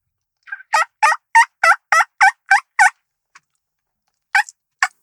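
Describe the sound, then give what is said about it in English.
A mouth call imitates a hen turkey with a quick run of about eight sharp, evenly spaced yelps, then a pause and two more. The calls are loud, with no talking. “That's what a female turkey sounds like.”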